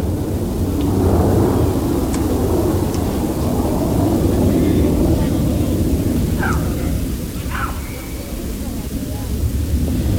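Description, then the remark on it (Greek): Several F-16 fighter jets roar over Thessaloniki, Greece, during a rehearsal flypast for the 28 October parade, a loud, continuous, rumbling wash of sound that fills the entire stretch, with a few faint higher chirps or voices poking through near the end. “Έχει ξεκινήσει η δοκιμαστική επίδειξη εν ώψη της παρέλασης την 28 Οκτωβρίου την Πέμπτη με τα F-16 τα μαχητικά αεροσκάφη να σκίζουν τον ουρανό της Θεσσαλονίκης.”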